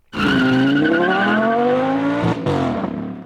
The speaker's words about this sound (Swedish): Ettans växel glider i med ett distinkt klick och du bestämmer dig för att göra en inspirerad start. Med högt varvtal släpper du kopplingen och genast belönas du med en kort protest ifrån däcken.